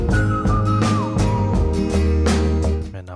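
A clear whistled melody glides over a full band arrangement with steady drums and bass, the tune sustained in long bright notes before shifting lower, loud throughout.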